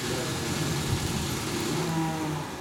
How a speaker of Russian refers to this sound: это стройка началась вообще? Да, вот там.